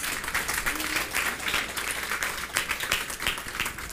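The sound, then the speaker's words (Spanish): A standing audience at a church service applauds steadily, a dense wash of many hands clapping with sharp individual claps flickering through, sustained at an even loudness throughout with no voices standing out. “Dele ese fuerte aplauso, por favor, Señor.”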